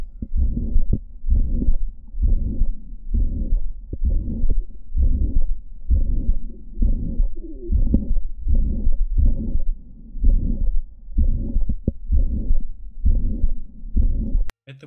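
A heart murmur from mitral valve prolapse with severe regurgitation: about fourteen steady, low, rumbling whooshing beats roughly once per second, loud and close, with no talking.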